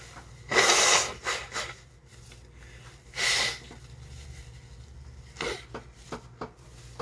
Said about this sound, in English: Hold on one second. Gotta blow my nose.